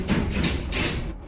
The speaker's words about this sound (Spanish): ese es mi perro, el que va ni bajando las escaleras.